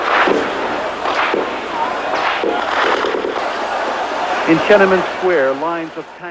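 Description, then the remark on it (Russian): Intermittent army gunfire in Beijing, scattered shots cracking out irregularly over a dense, noisy crowd din of residents in the streets, with several loud bangs spread across the scene and raised voices shouting toward the end. “Периодическая стрельба означает, что армия никуда не уходит, и любое сопротивление может стоить жизни.”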